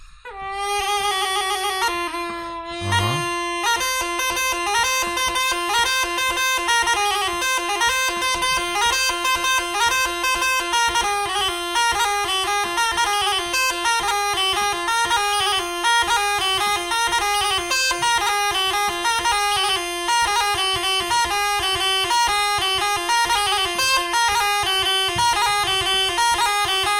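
A fluier (shepherd's flute) plays a lively, continuous folk melody, loud, with bright, reedy sustained notes and quick ornamented runs that carry on without pause for nearly half a minute.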